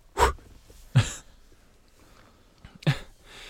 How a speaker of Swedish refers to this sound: Gud, jag måste andas.